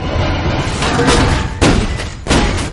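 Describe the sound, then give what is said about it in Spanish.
An artillery shell is fired from a tank: two heavy, booming blasts, the second a little after the first, punching through a steady rumbling, noisy background. No one speaks. “Jan lanza otro bus en dirección a Lin Impacta sobre el almacén de la munición.”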